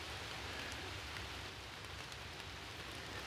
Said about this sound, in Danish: Som, som tidligere nævnt, så er det eneste, jeg rigtig hører herude i dag, det er jo regnen, regndråberne.